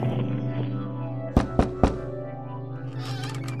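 Three quick, evenly spaced knocks on a door ring out sharply over a steady musical background, then the music carries on alone.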